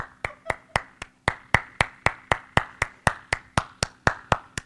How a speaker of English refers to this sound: And so I just stand up and clap when he gets.